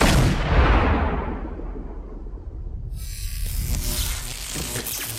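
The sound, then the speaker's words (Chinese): A single loud pistol shot in a film scene, an agent shot in the temple, bursts out at the start and rolls off in a long, booming decay, then a steady bright hiss rises about three seconds later. No one speaks. “此处有个穿帮，特工太阳穴中枪，带回来附体的士兵枪口却在没信。”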